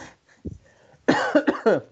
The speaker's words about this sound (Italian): scusate la, la tosse.